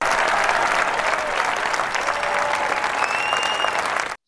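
Steady, dense applause from an audience, many hands clapping in a continuous bright wash at an even loudness for about four seconds before cutting off abruptly.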